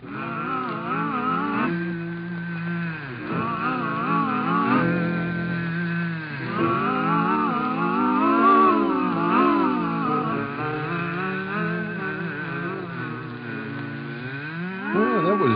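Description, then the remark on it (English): Four voices, a vocal quartet on a 1934 Kraft Music Hall show, hum together in sustained, wavering tones that imitate a swarm of buzzing bees, rising and falling continuously with no words, fairly loud throughout. “These bees come from one of the Kraft Music Hall shows way back in 1934.”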